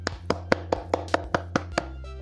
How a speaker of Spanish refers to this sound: El rey manda que aplaudas.